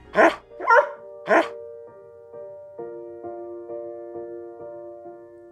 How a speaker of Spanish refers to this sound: Realmente sentía que el perro quería decirle algo, tanto con sus expresiones corporales como con los extraños e inéditos sonidos que pugnaban por salir de su garganta.